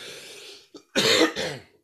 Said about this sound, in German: Sowas meintest ähm, du jetzt ähm, wie jetzt gerade? Das Räuspern? Ja, genau.